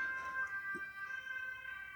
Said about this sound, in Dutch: er komt een, eh, een ambulance voorbij. Eh, ja. inderdaad. Die komt even een PS5 brengen met spoed, denk ik.